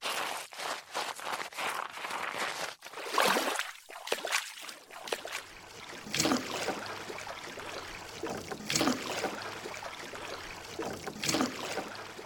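A kayak hull scrapes and shuffles over the shore, then slides into water, followed by gentle lapping and three slow, evenly spaced paddle strokes dipping. The kayaker, sealed in with a spray deck, is pushed off near Salen on Ardnamurchan, West Highland Peninsulas.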